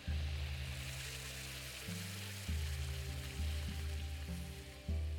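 A hot forged metal piece being made into a sword is plunged into a bucket of cold water in a blacksmith's workshop, giving a loud, steady sizzling hiss of steam that fills the whole stretch. A low droning hum shifts in pitch underneath, and no one speaks.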